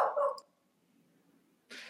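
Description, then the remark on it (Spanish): A small dog lets out one short, sharp bark right at the start, followed by near silence and then a brief breathy noise burst at the end. “Se me hace que el perrito de Rui es fan de Marvel.”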